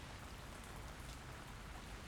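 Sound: rain falling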